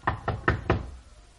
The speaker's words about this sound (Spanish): La puerta estaba de nuevo cerrada con llave. Esta vez la golpeé.